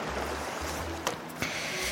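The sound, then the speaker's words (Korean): Water sloshes and laps steadily at a river while someone waits after casting a fishing line, a continuous watery wash with a low rumble underneath and two brief splashy slaps partway through; no voices. “출렁출렁 물소리를 들으면서 하염없이 기다린다.”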